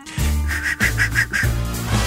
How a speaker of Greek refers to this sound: Έλα να μάθουμε να σφυρίζουμε. Ένα ε, σφυρίζω μπορώ, εντάξει. Για σφύριξε.